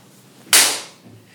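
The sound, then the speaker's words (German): A single sharp hand slap, a high five used as a reference for fixing audio problems, cracks out loud and bright at once, then its hiss fades over a fraction of a second. No one speaks. “Man muss ehrlich dazu gestehen, äh, dieser Klatscher ist zwischendurch auch, falls wir Tonprobleme haben, immer eine ganz tolle Referenz, um den Ton gerade zu rücken.”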